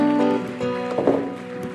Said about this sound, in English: Hallelujah. Put your hands together. Put your hand. Oh, clap.